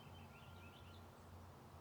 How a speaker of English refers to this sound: I'm going to put some more bird songs on for you to wrap up this episode. I'll turn the mic up a little bit and I'll invite you to just sit with them wherever they are.